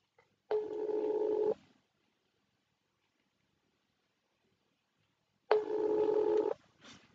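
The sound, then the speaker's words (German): An outgoing phone call's ringback tone sounds twice, each a steady, slightly buzzy one-second beep separated by about four seconds of silence, heard clearly with no talking. “Komm schon, bitte. Geh ans Telefon.”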